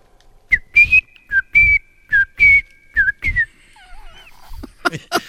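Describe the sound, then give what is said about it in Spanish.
A person whistles a series of short, chirpy calls imitating a little bird, about eight quick bursts in an uneven rhythm, fairly loud, ending in a few softer wavering whistles. “Me he convertido en pajarito para llegar a Venezuela.”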